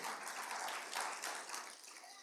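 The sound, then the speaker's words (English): An audience clapping their hands together, a dense, steady wash of many overlapping claps that holds at an even level for a couple of seconds before easing off slightly. “If you want the real thing, somebody just clap your hands and say, Lord, we want it right here, the real thing.”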